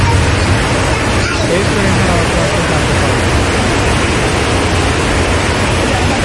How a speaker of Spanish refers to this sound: que agua está cayendo aquí en Jarabacoa y cayó una graniza, más oye que tú me irías para la calle y tú pensabas que eran gravillas, pero una granizada.